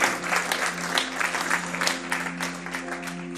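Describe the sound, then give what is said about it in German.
An audience breaks into sustained applause for God, a dense wash of many hands clapping steadily at moderate loudness, with a low hum underneath. “Ja, da kann man mal Gott einen Applaus geben.”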